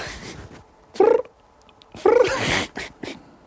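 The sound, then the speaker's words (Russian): A human voice imitates grasshoppers with two short, purring, trilled bursts about a second apart, fairly loud, with quiet between them. “кузнечиков. Они мурчат?”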